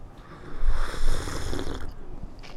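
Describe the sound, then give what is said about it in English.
A noisy, airy slurp as someone sips coffee, drawn out for over a second with a breathy, watery texture, followed by quieter breathing. “So let me go ahead and sip this coffee.”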